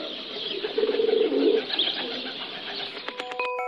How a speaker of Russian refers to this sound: Сизый голубь.